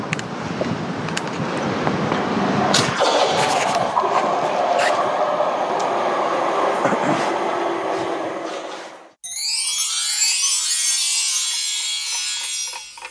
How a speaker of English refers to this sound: Oh, it's the central heating. Central heating. We'll, we'll just keep on. Well, then. Uh, apologies, listeners. The central heating's just come on. It's making a whirring noise.